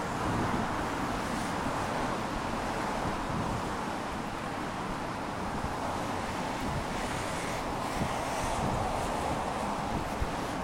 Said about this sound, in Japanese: というかすごい車がうるさいですねこれあんま良くないなこれ。